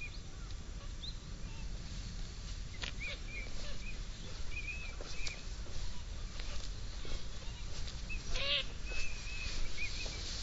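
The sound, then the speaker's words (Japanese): Scattered bird calls and chirps, with small chicks present, ring out over a steady outdoor hum, with one sharper, brighter call standing out near the end. “小さいヒナがいるとなんかどうしても写真撮りたくなって、今日はもうほんと鳥の写真ばっか撮ってる。”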